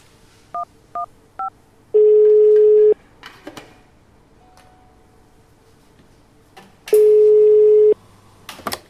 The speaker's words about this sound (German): du hast doch dein Handy dabei. Ruf sofort die Polizei an.